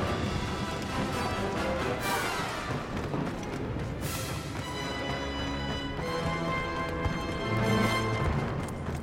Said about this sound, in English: And your footsteps, you can hear every footstep.